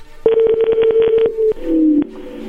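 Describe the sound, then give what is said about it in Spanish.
A phone number being dialed: a rapid run of about a dozen short keypad beeps over a steady tone, followed by a couple of sharper clicks and a lower, wavering tone. “Márcale de nuevo.”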